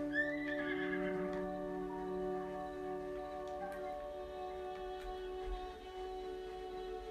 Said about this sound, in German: So, mein Pferd kommt.